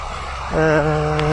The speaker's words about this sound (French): Là, vous avez droit au tracteur.